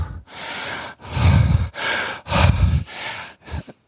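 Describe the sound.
Loud, exaggerated breathing as a demonstration of breathing loudly: a series of heavy gasping inhales and exhales in uneven bursts, ending with a couple of quick short breaths. No speech.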